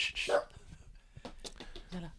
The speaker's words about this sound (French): le chien derrière.